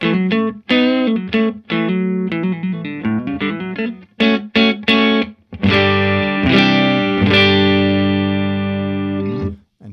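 Clean electric guitar played through a Celestion Blue amp speaker, starting with quick picked notes and short choppy phrases, then settling into loud strummed chords that ring out and sustain. No voices.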